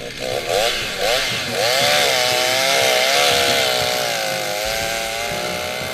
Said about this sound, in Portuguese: faço com a motosserra e ela vai e vai rachando atrás e pronto, e é mais é para ir passando o tempo.